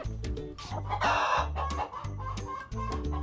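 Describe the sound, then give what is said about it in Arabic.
Hens that have laid eggs cluck in quick, busy bursts while a rooster lets out a loud crow partway through, all fairly loud over a steady, low rhythmic backing. No one speaks. “الدجاجة البيضاء باضت بيضاً والدجاجة السوداء باضت بيضاً والدجاجة العسلية أم الريش المنتوف باضت هي أيضاً إلا خوخة الدجاجة الحمراء لم تبض ولا بيضة واحدة”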